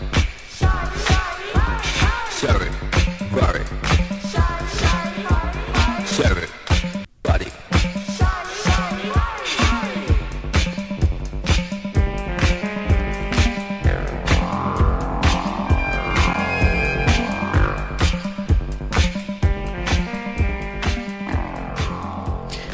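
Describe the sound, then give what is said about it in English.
A Detroit techno track plays loud and up front, driven by a steady, punchy kick pulse under bright, sweeping synthesizer lines, with a brief dropout early on and no voices. “I know we're talking about Detroit techno”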